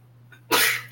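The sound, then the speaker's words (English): A single sharp sneeze bursts out after a faint intake of breath, loud and noisy, with a steady low hum underneath. “bless you.”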